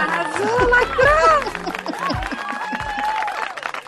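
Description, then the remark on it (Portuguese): A burst of applause with cheering and whooping voices, loud at first, then tapering into scattered clapping and excited chatter. “Aplausos, Técnica e Anões, por favor.”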